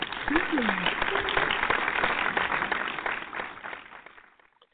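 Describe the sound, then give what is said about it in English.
A crowd breaks into dense, steady applause with a quick cheer near the start, the clapping holding for a few seconds before fading out. “Where's my applause?”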